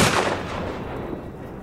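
gunshot

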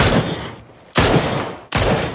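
gunfire bursts

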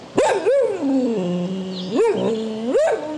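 dog howling

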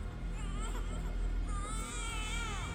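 baby crying

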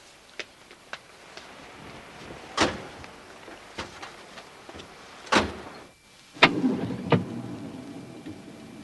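getting into a car

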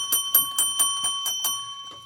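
bell ringing

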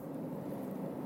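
car road noise

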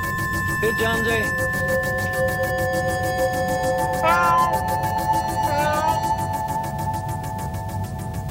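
cat meowing

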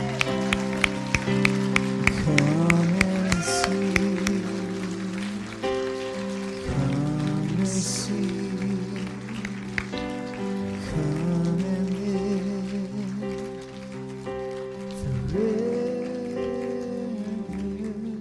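audience clapping

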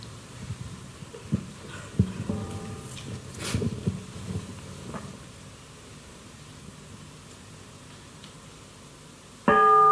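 bell ringing

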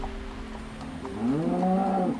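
oxen mooing

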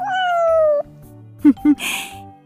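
cat meowing

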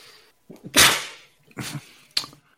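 sneeze

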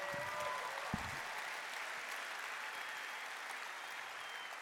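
audience clapping

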